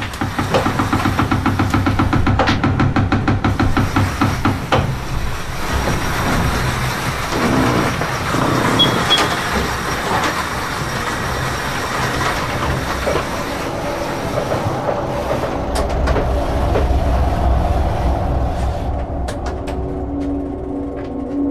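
Loud, continuous rushing and rumbling aboard a racing sailboat at sea during the Vendée Globe round-the-world race, day 37, heading east toward the Pacific, with rapid rhythmic knocking and rattling early on that eases into a steady roar of wind and water. No voices.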